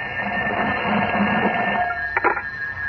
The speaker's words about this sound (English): As we continue a short time later, Clark Kent enters his metropolis apartment to find his telephone ringing.